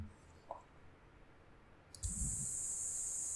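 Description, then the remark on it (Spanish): Cicadas suddenly burst into a loud, continuous high-pitched buzzing drone that holds steady to the end, after a quiet stretch with a soft low thump as it begins. “Aquí, aquí volviendo a reportar las tierras No Se, no se, puede escuchar, el sonido de las, cigarras.”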